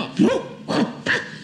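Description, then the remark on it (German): A man imitates a dog barking with three short, loud woofs spaced about half a second apart, with no other talking. “das ist mein sprechender Hund Socki”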